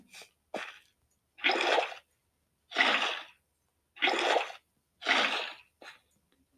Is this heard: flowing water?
yes